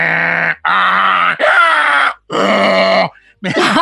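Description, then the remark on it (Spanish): A voice loudly imitates its own heavy snoring with four rough, drawn-out rasping bursts separated by short pauses, ending in a brief fifth snort; forceful with no ordinary speech. “yo roncaba desde hace mucho tiempo, roncaba muy fuerte.”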